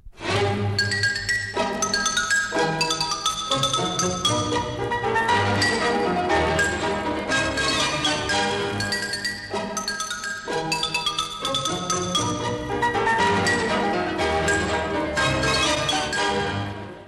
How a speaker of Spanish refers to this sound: Yo invito al gilófono. Ah, ya sé. El gilófono es muy ágil. Le voy a encargar que le avise a las otras familias de instrumentos. ¡Que venga el xilófono!